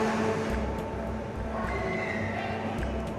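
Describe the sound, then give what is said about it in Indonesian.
A motorboat engine drones steadily by the beach, a continuous low rumble with a faint whine above it, holding even for the whole stretch, with indistinct voices in the background. “tadi ada suara motor boot kita lagi di pinggir pantai pinggir pantai”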